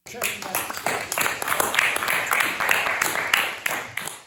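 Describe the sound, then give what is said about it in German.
Small, quiet applause from a modest group at the end of a small, quiet event in Mexico, honoring a hero, a dense patter of light claps running steadily for a few seconds with faint murmuring voices mixed in. “Und wenn es etwas gab, das in dieser Woche einen Nachhall verdient hat, dann dieser kleine leise Applaus am Ende der kleinen leisen Veranstaltung, ein Applaus für einen wahren Helden, der in uns allen gerne noch etwas nachklingen darf.”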